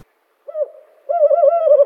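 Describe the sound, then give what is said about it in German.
An owl hoots twice: a short low note, a brief pause, then a longer wavering hoot. The calls are fairly loud, tonal and alone, with no voices. “Eulen sind ja in der Antike eher geachtet worden.”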